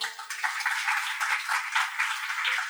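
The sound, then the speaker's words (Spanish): A crowd applauds to welcome a guest who came from Guatemala. Many hands clap at once in a dense, crackling wash, sustained at an even level throughout with no voices over it. “Así que yo quiero que la recibamos con otro aplauso.”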